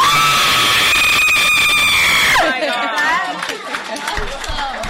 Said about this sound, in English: Oh, you want to hear my scream?